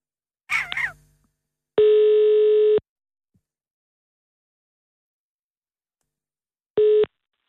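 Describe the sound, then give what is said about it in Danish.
A telephone ringback tone sounds while a call to Rasmus Paludan goes through: a steady mid-pitched electronic tone lasting about a second, then a long silence, then the same tone again, briefly. A short raspy chirp comes first. “Vil du så være venlig at ringe til Rasmus Paludan?”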